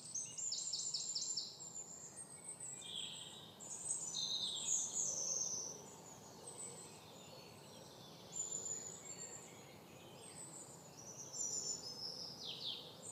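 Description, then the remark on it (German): Several birds sing and chirp in overlapping high, twittering phrases over a steady, soft outdoor rustle of wind and grass, with no voices present. “die Umgebungsgeräusche wahrzunehmen. Das Rauschen des Windes, den Vogelgesang, das Rascheln der Grashalme.”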